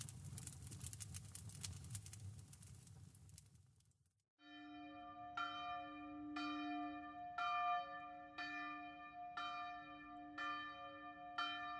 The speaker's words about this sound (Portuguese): Natal, e com tudo o que se pode querer, desde os sinos repicantes nas igrejas